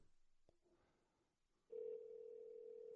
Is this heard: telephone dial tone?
yes